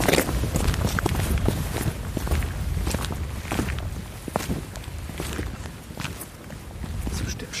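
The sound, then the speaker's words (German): Shoes tapping out a quick, playful series of tap-dance steps, sharp irregular clicks and scuffs repeating across the whole stretch at a steady, fairly loud level. “Deine Schuhe sind lauter.”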